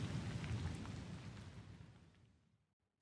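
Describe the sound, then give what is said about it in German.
Steady rain hisses over a deep, rolling thunder rumble that is loudest at the start, then both fade away to near silence in about two and a half seconds. “Sie hatten sich am Tag nach dem Gewitter zu dem geplanten Abschlusstest eingefunden.”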